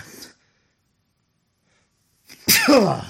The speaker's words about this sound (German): Ja, ich muss eben kurz niesen. Augenblick.